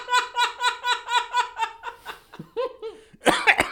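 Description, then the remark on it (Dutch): Rhythmic, voiced laughter runs for a couple of seconds, then a few short, harsh coughs burst out near the end, loud. “jij hebt eh, een beetje last van de hoesten, hè?”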